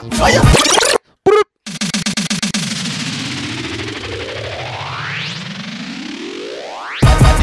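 Loud music stutters and drops out, then a DJ pull-up rewinds the record: a long, warbling whoosh that climbs steadily in pitch for several seconds before the track slams back in.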